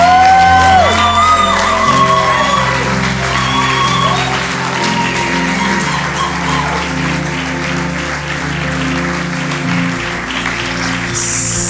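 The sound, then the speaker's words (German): A large church audience stands and applauds loudly and steadily for several seconds, with scattered whoops and cheers rising above the clapping and sustained music or tones underneath. “Deswegen lasst uns gemeinsam aufstehen an allen Standorten und ein einen großen Sea Church Applaus”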